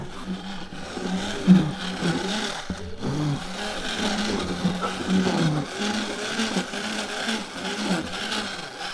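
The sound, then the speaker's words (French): A vibrating plough runs steadily, a harsh, buzzing mechanical drone with a low hum beneath and rattling, grinding texture, fairly loud and continuous for the whole stretch with no voices. “Et là, aïe, V comme vibro-laboureur.”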